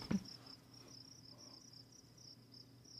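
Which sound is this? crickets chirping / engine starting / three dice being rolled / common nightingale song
crickets chirping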